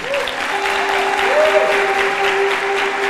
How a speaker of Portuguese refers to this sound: Vem aqui, eles estão aqui, quem é? Quem é? Dá uma salva de palmas para eles aqui, gente.